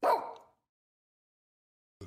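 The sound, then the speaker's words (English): A dog named Eugene, being told to sit, gives one short, loud bark, followed by silence and the start of another faint sound at the very end. “Sit. Good dog.”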